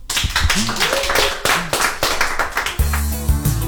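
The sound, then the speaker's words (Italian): An audience applauds with dense, steady clapping that fills the whole stretch, a few voices calling out over it and a low humming tone entering toward the end. “Non sbaglio, applauso.”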